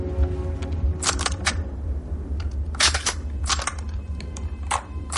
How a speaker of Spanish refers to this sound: Hans y sus hombres preparan sus armas automáticas dentro del ascensor.